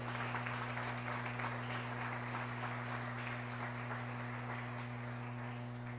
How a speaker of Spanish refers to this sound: Ahora, pregunto, dele palmas al Señor.